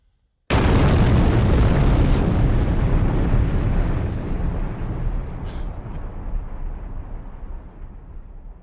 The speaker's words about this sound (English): Shots fired.